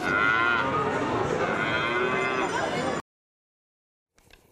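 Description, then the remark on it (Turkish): A Normandy cow named Oriyet, chosen as this year's Miss France cow beauty queen in France, lets out one long, loud, resonant moo lasting about three seconds, followed by silence and a faint trailing sound. “Bu sene bir Norman e, ırkından e, bir inek seçmişler.”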